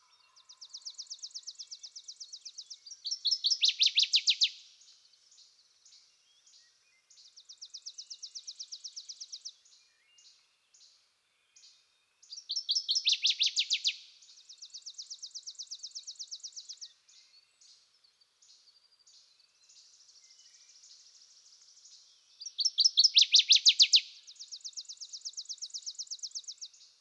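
A waterthrush sings alone by a stumpy shallow pond, repeating a loud, ringing song phrase about every ten seconds, with softer chattering and rapid chips between the bursts, clear.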